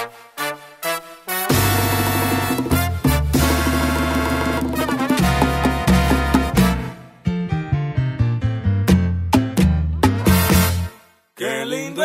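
A salsa song plays loud and full, with punchy percussion hits and stabbing horn-like chords over a driving bass, the rhythm breaking into sharp accented stops near the end. No voices talk over it.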